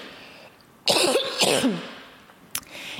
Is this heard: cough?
yes